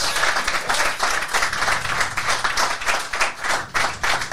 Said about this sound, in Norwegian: Ja, ja det er applaus.